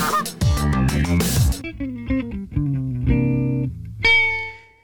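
A run of loud, heavily distorted goose honks from the goose character Fifi, several blaring nasal calls one after another with an electronic, effects-processed edge, and no one talking.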